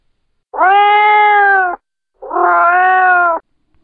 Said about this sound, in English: Can you still meow? asked the donkey. Oh, yes, indeed, replied the cat.